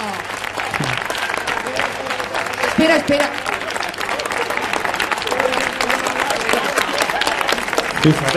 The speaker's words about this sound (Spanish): Anda, pues ven, que te daremos un aplauso. ¡Aplauso!